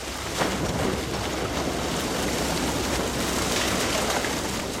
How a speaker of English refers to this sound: The fish are moved by net to a water filled tank on this truck. Then they're driven to spawning grounds above one of the blocked fish ladders, where they're emptied out.